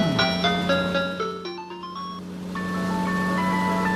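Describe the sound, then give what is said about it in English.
An ice cream van's tinkling chime melody plays loudly over a steady, droning engine hum, heard from inside the van as it rolls along, with no voices. “I'm in the van, and and we are rolling.”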